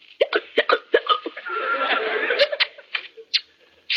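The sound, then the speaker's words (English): A string of sharp, abrupt hiccups from a voice, coming in quick irregular jolts, with a strained, squeaky vocal stretch in the middle before a few more hiccups. “I'll kiss you. If only you'll stop those awful hiccups.”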